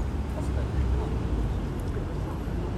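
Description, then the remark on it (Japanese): A steady low rumble of busy road traffic on a main road in front of Ikebukuro Station fills the whole stretch, loud, with engine drone blending into one continuous roar and faint indistinct voices mixed underneath. “すごい車うるさいなやっぱ ほら言ったじゃん去ね大通り沿いで撮っていいのってなんか日ね池袋のねすごい駅前のね道路のねで撮ってんだねこれはね”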